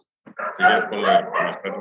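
Dogs bark in a quick, overlapping run of four or five yelping barks, fairly loud, with no pause between them.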